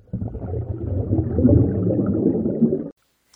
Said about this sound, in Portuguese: Quem tá respirando no microfone?